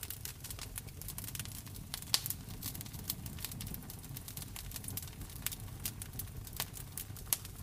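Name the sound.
crackling fire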